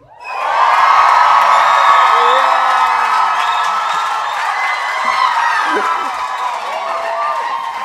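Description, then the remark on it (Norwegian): A large live audience cheers and shouts loudly and continuously in the night tent at the UL gathering in Kongeparken, Ålgård, a dense wall of excited voices with whoops rising above it, sustained for several seconds. “Kan vi høre om det er litt lyd i den gjengen?”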